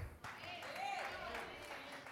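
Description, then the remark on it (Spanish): An audience applauds in a steady wash of clapping that runs through the whole moment, with crowd voices rising over it. “Así va a aplaudir, aplaude fuerte, porque si no, no aplaudimos nada.”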